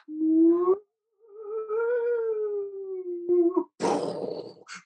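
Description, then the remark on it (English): A wavering theremin tone glides in long sustained notes, pausing briefly, with slow drum-like booming, then gives way to a loud burst of hissing white noise near the end; a rendition of "We Wish You a Merry Christmas", the track ending side one of a record. No one speaks. “and the track that ends, side one, is a, uh, a, a theremin and a lot of white noise and somebody booming, sort of like hitting a drum slow down or something.”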